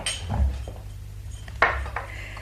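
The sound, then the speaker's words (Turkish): Tea glasses and a teapot clink as tea is served: a soft knock early on, then one clear, bright ring of glass and a lighter tap afterward, with no voices. “Hadi çayımızı içelim ah, Yorulmasanız Yo yorulmam kızım Gördüğün gibi çaydanlık ateşin üzerindedir İzin verirseniz bu işi ben yapayım”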